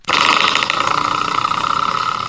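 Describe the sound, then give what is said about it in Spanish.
A door stopper spring, the kind mounted low on a door to stop it, is flicked, giving a sudden twang that rings on as a loud, buzzing, wobbling tone for about two seconds, easing off slightly, with no voices. “Ese sonidito es el resorte que va en la puerta y abajo para detenerla.”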